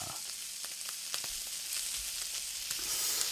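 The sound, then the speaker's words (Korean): Meat sizzles steadily on a hot grill plate, a dense, continuous hiss with scattered sharp pops and crackles of spitting fat, without any voices. “비 오는 소리 아니지요. 불판에 고기 올라간 소리입니다.”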